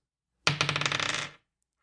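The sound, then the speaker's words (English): A six-sided die, rolled for a character's flaw, clatters and tumbles across a hard surface, a quick rattle of bright clicks lasting about a second before settling, with no voices. “All right, I'm gonna roll dog d6 for flaws.”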